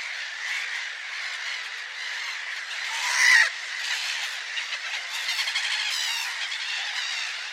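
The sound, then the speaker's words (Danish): A colony of some 6,000 to 8,000 black-headed gulls taking wing all at once to attack a dog, calling in a dense, continuous roar of harsh, high squawks that swells briefly in the middle, with no talking. “Altså, det var jo et brøl, når 6-8.000 hættemåre gik på vingerne i et hug.”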